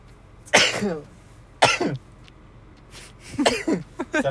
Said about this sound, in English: Bless you.